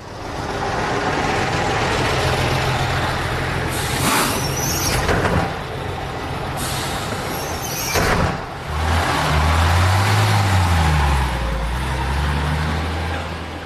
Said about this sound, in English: Then what are we waiting for? Uh, this bus.